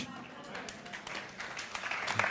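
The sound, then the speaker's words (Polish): A brief patter of audience clapping during a sermon, about three scattered sharp claps rather than full applause, with a voice talking faintly beneath them. “Dziękuję za trzy klaski.”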